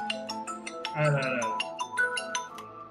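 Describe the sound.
A mobile phone rings with an incoming call from the speaker's mother, its bright, melodic ringtone repeating in quick tonal bursts while a voice talks over it.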